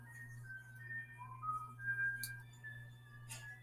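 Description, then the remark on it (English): Someone whistles a soft, wandering theme tune, the notes gliding up and down over a steady low hum, with a couple of sharp clinks from the kitchen partway through. No one speaks. “So that one is from you hear whistling.”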